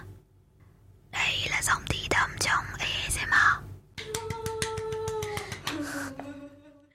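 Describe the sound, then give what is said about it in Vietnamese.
Breathy, intimate whispering right up against the microphone, with soft crisp clicks and mouth sounds, then a hushed, steadier voiced murmur that fades out. “Bạn chỉ cần kéo chiếc mic lại gần và nói thi thầm vào đó.”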